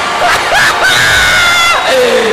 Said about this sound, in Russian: Спасибо. Спасибо. Спасибо, дорогие мои. Спасибо за ваши добрые улыбки, аплодисменты.